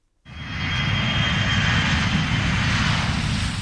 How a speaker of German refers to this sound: Mit viel Krach und Kerosin. So werden Flugzeuge in einigen Jahren oder Jahrzehnten nicht mehr unterwegs sein.